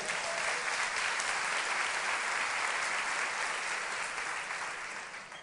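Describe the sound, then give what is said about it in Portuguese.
An audience claps for the Lord together in a dense, steady wash of applause that stays loud and even for several seconds, then begins to taper off toward the end, with no voices over it. “Você pode aplaudir o Senhor aí?”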